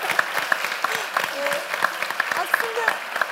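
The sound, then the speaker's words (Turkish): A crowd applauds steadily, dense overlapping claps forming a continuous rattling patter with sharper individual claps popping out, while voices talk underneath throughout, applauding a world first-place win chosen from among 15 finalists. “Alkışı kendi da, alkışı da alalım ama.”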